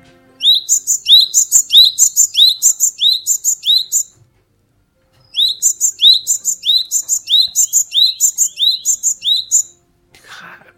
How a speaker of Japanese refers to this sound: はい、じゃあまずこの春とか夏によく聞こえる四十からの声から聞いてみましょう。